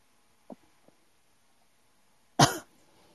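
A single sharp, loud cough bursts out after a quiet stretch, preceded by two faint, brief throat sounds. No one speaks.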